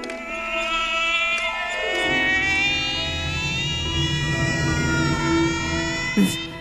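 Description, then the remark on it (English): A whining, cat-like alarm wails steadily, its bright harmonic tone sliding downward in pitch like a long drawn-out meow, with a short click near the end and no voices. “this alarm is just this like whining cat going meow.”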